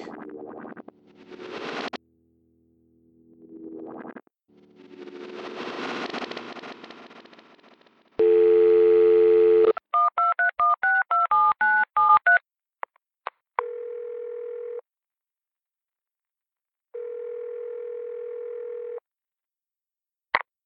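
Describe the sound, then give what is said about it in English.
A steady telephone dial tone hums loudly for a moment, then a quick run of about a dozen touch-tone beeps is punched in, followed by two long ringing tones with a pause between. “I have an important phone call to make.”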